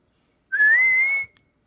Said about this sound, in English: That's me whistling for my cats. It's a very real thing out here.